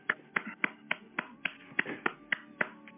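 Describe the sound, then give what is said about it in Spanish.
Steady rhythmic clapping, about ten sharp claps at an even, brisk pace, over a low tonal hum in the background. No one speaks. “Escuchan en el fondo. Yo, he conseguido algo. Mientras los aplausos terminan, se acerca un hombre desde aquí abajo.”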